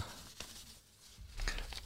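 Soft paper handling: a few crisp rustles and crinkles as a small blue post-it note is unfolded and opened, with a brief snap near the start and a louder crackle toward the end.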